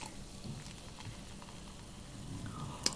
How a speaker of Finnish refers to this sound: nyt tota kaadetaan täältä pikkumaistiaiset. Montas meitä on? Meitä on neljä. Mulla on viisi mukia. Pistä mikkiin vähän tota kuohuvaa ääntä Joo, vielä.